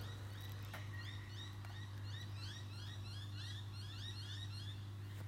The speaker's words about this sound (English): Alrighty, listen to those birds.